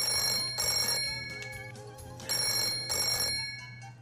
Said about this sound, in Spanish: ¿Tenés sonido de teléfono, Chomito? Teléfono sonando.